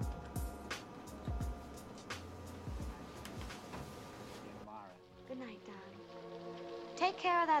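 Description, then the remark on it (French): Steady, heavy rain hisses with a few dull thumps for several seconds in a film scene, then cuts away to quieter music with voices over it. “This California dew is just a little heavier than usual tonight.”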